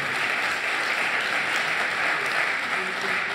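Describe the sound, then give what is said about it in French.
Steady audience applause at a round-table discussion, a dense wash of many hands clapping at an even level throughout, with no voices standing out above it. “Applaudissements.”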